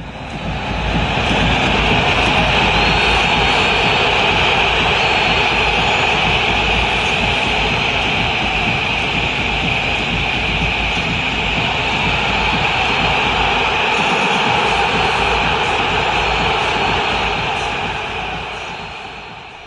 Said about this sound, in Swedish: Visselkonserten Roma möttes av när de sprang in på San Siro var inte att leka med och lägg märke till hur det höjs ytterligare ett snäpp efter sådär 10 sekunder när publiken får syn på Romelu Lukaku.